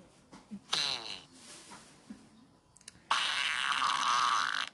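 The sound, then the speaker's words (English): Recorded farts from an online video of many different people farting: a short, squeaky, rubbery burst early on, then a longer, loud, raspy blast that carries through to the end, with no one talking. “That last one just sounded like rubber stretching. It's not like a continuous loop of the same fart.”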